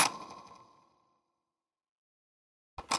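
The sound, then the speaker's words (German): A computer mouse scroll wheel, given one quick scroll, spins freely as a built-in motor kicks in and scrolls automatically, with a bright metallic whir that fades out within about a second. Silence follows, then two quick clicks at the very end. “ich benutze diese Maus auch auf der Arbeit und da habe ich manchmal 100 Seiten PDFs, dann kann man auch einmal, einmal schnell scrollen und dann ist ein Motor, der anspringt und dann automatisch scrollt.”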